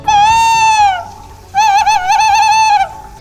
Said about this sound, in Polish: Dzień dobry panie Puszczyku, co u pana słychać?